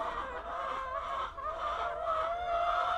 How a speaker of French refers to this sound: J'aime bien les voir le matin, euh, leur ouvrir et les voir dans les champs. Il y a quelque chose d'apaisant dans le poulailler aussi. Euh, ça me fait du bien de d'aller ici quoi.